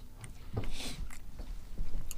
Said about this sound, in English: I think they can hear me chewing. Can you hear me chewing? Just shut up. Well, obviously I can hear you.